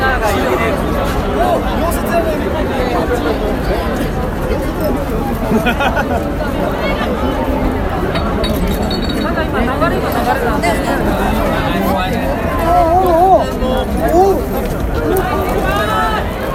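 Dense crowd chatter fills a busy street in Shibuya, many overlapping voices forming a steady, loud hubbub with no single speaker standing out, continuous throughout.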